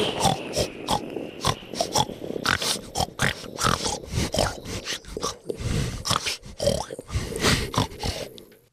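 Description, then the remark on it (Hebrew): A person imitates a pig with a rapid, continuous run of guttural grunts and snorts. They are loud, in choppy bursts that keep going for several seconds with no talking. “והוא ידע לעשות קולות של חזיר.”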